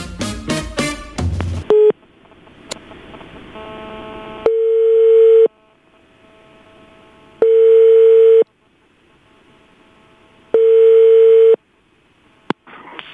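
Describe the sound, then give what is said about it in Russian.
A quick run of dialing beeps, then the ringback tone of an outgoing call to a washing machine repair service: four steady, mid-pitched one-second tones separated by longer silent gaps, with faint line hiss between them and no voices. “Дмитрий вроде на связи. На связи? Звонишь уже?”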